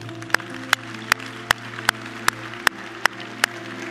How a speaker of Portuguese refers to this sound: Salva de palmas para ele.